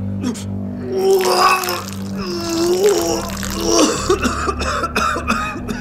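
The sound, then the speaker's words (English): Someone retches and vomits over several seconds with harsh, gurgling heaves beside a sink, and a viscous gray slime splashes and spatters onto a tile floor over a steady low hum. “I vomited and slumped against the sink, my legs threatening to give way.”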